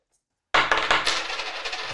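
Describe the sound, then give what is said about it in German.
A handful of coins, four euros in all, spills out of a wallet and clinks together in a bright metallic jingle, starting abruptly after a short silence and rattling on for over a second. “Das sind jetzt vier Euro, ja, ja.”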